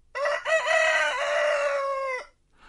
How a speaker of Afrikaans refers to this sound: Anna word wakker toe die haan kraai.